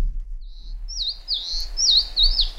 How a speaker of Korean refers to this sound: 네. 새 웃음소리입니다. 네. 대개 이제 울음소리 그러는데 전 웃음소리라고 얘기하고 싶어요.